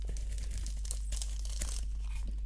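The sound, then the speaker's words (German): Crisp crunching of a natto-flavored Umaibo puffed corn snack being bitten and chewed, with several sharp crackly bursts over a steady low background hum and no talking. “Jetzt hört ihr, wie ich in einen Natto Omaibo oh beiße.”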